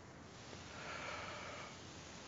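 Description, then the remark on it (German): A quiet, stifled yawn, kept as soft as possible: one long, airy inhale that swells softly and then fades before any exhale, with no talking. “Ich habe versucht, ganz, ganz leise zu gähnen.”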